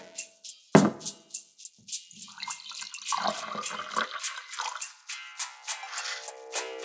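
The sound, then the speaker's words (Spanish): A drink is poured into a glass: a sharp splash, a few light drips, then a steady gurgling stream whose pitch climbs as the glass fills. No one speaks. “Antes de empezar, te invito un trago.”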